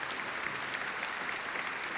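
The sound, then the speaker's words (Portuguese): Dense, continuous applause for the audience, a steady wash of many hands clapping at an even loudness for the full two seconds, with no voices standing out. “Palmas pro público, porra.”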